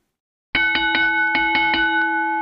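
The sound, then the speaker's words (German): A bright, ringing notification bell chime sounds in a quick series of rapid strikes, loud, its sustained metallic tone shimmering on after silence at the start. “Und gerne abonnieren, die Glocke nicht vergessen zu ähm, betätigen, weil dann.”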